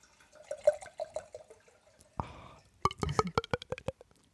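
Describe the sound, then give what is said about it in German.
Wine glugs rhythmically from a bottle, then a short rushing pour splashes into a glass, followed by a flurry of bright drips and clinks. Fairly quiet, with no talking. “gieß mal ein, den Wein.”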